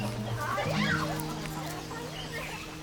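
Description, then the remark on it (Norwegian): Chickens cluck and squawk in short, rising calls as they run across a road lined with yellow mimosa trees in Africa, amid a busy outdoor scene, with a steady low engine-like hum and murmuring voices in the background. “Høner løper over veien, unger strømmer til.”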